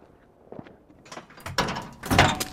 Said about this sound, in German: Bestimmt machen sie die Tür auf.